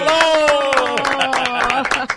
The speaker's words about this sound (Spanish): ¡Qué bueno! ¡Un aplauso! ¡Dale!